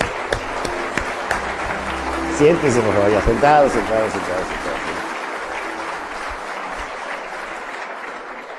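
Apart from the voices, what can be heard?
audience applause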